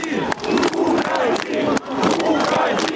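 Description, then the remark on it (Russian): A large protest crowd shouts and chants loudly and continuously, with sharp clapping bursts cutting through the dense roar of voices. “Люди начинают хлопать, протест становится все громче.”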